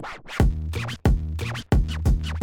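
A loud time-passing sound effect: four quick, scratchy rewinding swooshes repeat in a steady rhythm, each one sweeping and then cutting off abruptly. No one speaks over it.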